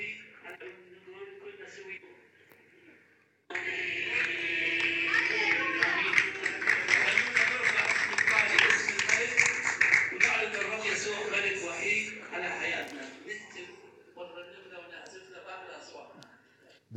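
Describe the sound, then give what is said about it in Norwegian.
An audience at a church service claps along in a steady rhythm amid lively singing voices, in a place where it has been very hard to be Christian; a dense, full sound that swells in after a quiet start and fades toward the end. “Men eh, dere hørte klappingen og gleden av å tilhøre Jesus på et sted der det har vært utrolig vanskelig å være kristen.”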